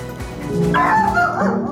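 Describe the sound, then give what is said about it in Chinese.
Two dogs in Canada, a husky–shepherd mix named Sandy and a Rottweiler named Rolo, get excited seeing each other on a video call: a run of high, wavering whines and yips mixed with short barks, fairly loud and continuous over a bit under two seconds, with no talking. “两只狗狗只要在荧幕上看到对方，都会变得很激动。”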